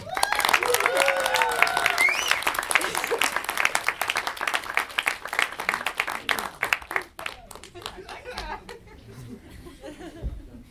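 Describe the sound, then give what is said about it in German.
Loud audience applause as two people are called up to the front, dense, rapid clapping mixed with cheering and laughter, keeping up for about seven seconds before thinning out to scattered claps. “Das heißt, ihr müsst jetzt gleich ganz laut klatschen, wenn ich jemanden nach vorne rufe, weil die wissen noch nichts von ihrem Glück.”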